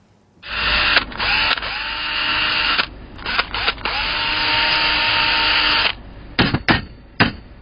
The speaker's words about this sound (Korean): 네, 오늘 가요광장에 도착한 챗바퀴 사운드는요 인테리어 현장 소리예요. 전기 공사하는 드릴 소리부터 망치질하는 소리까지 거의 뭐 ASMR 버금가게 생생한 소리가 도착해 있다고 합니다.